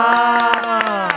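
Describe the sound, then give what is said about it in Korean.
Several sharp hand claps, about seven, land in an uneven rhythm over a steady, sustained vocal note that slowly dips in pitch, as Cool FM radio hosts clap to start the third part of their show. “야, 저희가 여기서 박수 한번 치고 시작할게요.”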